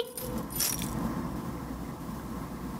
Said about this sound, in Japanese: はい部室の鍵